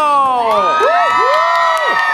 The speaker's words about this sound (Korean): 우리 밖에 계신 분들 박수, 박수와 함성요!